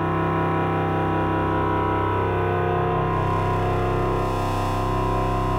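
A sustained synthesizer tone drenched in spring reverb, with a metallic, washy shimmer smearing the harmonics into a steady, loud drone that lingers without any voices.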